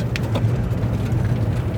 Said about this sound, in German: irgendwie mit so Asphaltflecken und äh, da ist dann, wie das sich so gehört, so Split drüber gestreut. Und der klappert jetzt in den äh, Radkasten.